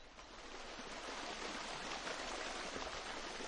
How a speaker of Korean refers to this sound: 그러더니 계곡 물속으로 첨벙첨벙 걸어 들어가는 게 아니겠어요?